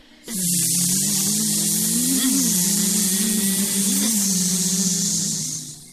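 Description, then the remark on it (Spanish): A swarm of flies buzzes in one continuous drone, a low hum that wavers slightly in pitch over a steady airy hiss, holding at an even loudness for about six seconds with no voices. “Escucha, escucha el ruido de sus alas semejante al ronquido de una forja.”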